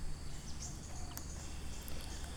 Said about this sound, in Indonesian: Ya, kami penyanyi hutan bersama kicauan burung, jangkrik, kodok angin, dan riuh dedaunan.